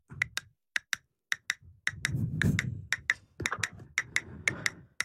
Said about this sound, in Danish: Det bliver så dejligt at høre, hvordan at du udvikler på kastanjetter her hen over sommeren.